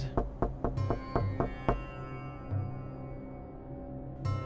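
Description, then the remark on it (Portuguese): A quick series of about eight sharp knocks on a door, fairly loud, then they stop while a steady, humming musical drone carries on underneath. “Alguém bateu à porta e John ficou confuso.”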